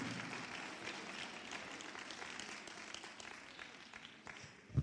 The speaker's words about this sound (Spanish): Alguien le dé un aplauso fuerte al Señor.